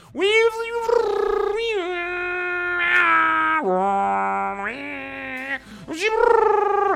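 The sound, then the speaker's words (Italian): A voice imitates a dial-up modem, producing a loud, buzzy run of sustained tones that hop between steady pitch levels, with a few brief breaks and a final rising whine. “Un'altra gli sono collegato facendo l'imitazione di un modem, pensate.”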